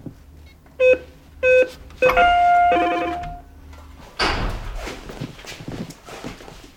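Two short electronic beeps and a ringing chime tone, then a door opens with a rush of noise, followed by a few soft, uneven footsteps.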